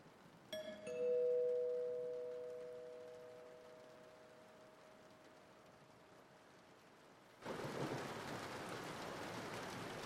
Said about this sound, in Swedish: Jag har gått vilse i stormen.